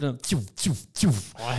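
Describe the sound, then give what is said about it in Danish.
A voice imitates a laser pistol three times in quick succession, each shot a sharp, downward-sweeping 'pew' at an even rhythm, followed by a short spoken syllable. “Øh, det er også ham, der opfinder lyden, som vi jo lige siden alle sammen, der går op i den slags, øh, befinder, eller be, betragter som lyden af en laserpistol.”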